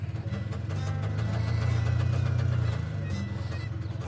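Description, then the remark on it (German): The small engine of a three-wheeled cabin scooter starts and runs at a steady idle, a continuous low rumbling drone with a slight rise in loudness midway and no pauses. “Der Beifahrer nimmt hinter dem Fahrer Platz und sitzt direkt auf dem Motor. Er springt anscheinend an.”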